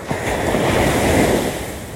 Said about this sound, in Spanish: Cada ola que va y viene es una cosa muy cabrona.